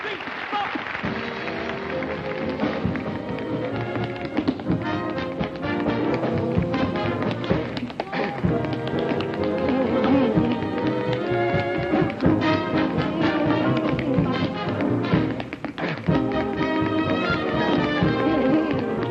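Fast tap dancing clatters in quick, dense rhythms over lively band music, the crisp heel-and-toe strikes steady throughout, with brief flurries of rapid taps.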